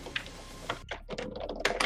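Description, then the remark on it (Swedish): Computer keyboard keys clicking in quick, irregular bursts, moderately loud, with a brief pause partway through and no voices. “Du kan inte klicka på tangentbordet, förlåt.”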